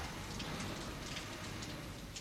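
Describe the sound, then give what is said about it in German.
Heavy rain pours steadily onto a broad, dirty city street and wet pavement lit by sparse street lamps, a dense, constant hiss with scattered sharper drips and patters, unbroken, with no voices. “Spärliche Laternen glimmten verlassen auf der breiten, schmutzigen Straße und auf dem regennassen Trottoir.”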